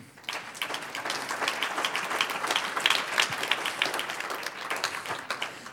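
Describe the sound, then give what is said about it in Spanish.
A church audience breaks into sustained applause for the Lord during a sermon, many hands clapping in a dense, steady wash of sharp claps that holds at a fairly even loudness for several seconds. “Un aplauso al Señor.”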